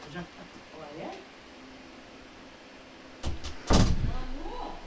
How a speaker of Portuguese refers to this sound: Fecha a porta, já não tá aqui mais não, saiu aí pra fora.